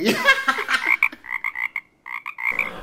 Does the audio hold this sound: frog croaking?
yes